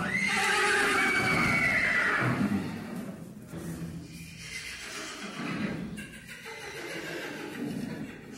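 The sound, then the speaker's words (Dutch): A horse rearing up lets out a loud, shrill whinny that wavers and trails off, followed by snorting and rough breathy sounds, with no talking. “Het meest indrukwekkende dat je bij paarden kan zien, is als ze beginnen te stijgen.”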